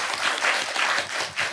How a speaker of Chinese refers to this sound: 对，一般我们那个接不出梗来的，我们就鼓掌，是吧？